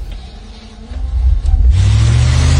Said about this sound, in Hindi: मैं गाड़ी में बैठा और गाड़ी स्टार्ट की